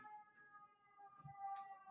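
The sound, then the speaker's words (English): An ambulance siren outside wails steadily, its sustained tones drifting through the background, muffled, with a brief soft thump and a short hiss near the end. “There's a there's an there's a, uh, an ambulance outside there.”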